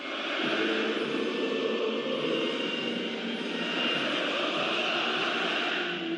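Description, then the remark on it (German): A huge stadium crowd of players and fans sings the Turkish national anthem before a match against Switzerland, thousands of voices merging into a loud, continuous roar that holds steady for several seconds. “Die Spieler und Fans singen so laut sie können.”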